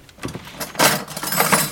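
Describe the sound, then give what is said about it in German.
Metallic clinking and rattling of cutlery as a drawer is pulled open and a knife is taken out to chop an egg, a short busy jangle with no voices. “Äh, nimm dir ein Messer aus der Schublade und äh, hack doch mal bitte dieses Ei hier.”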